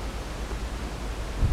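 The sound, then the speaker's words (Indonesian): Steady low rumbling noise of wind buffeting a microphone while recording at a junior high school (SMP), continuous, with a slightly stronger gust near the end. No one speaks. “Udah nggak apa itu angin guys.”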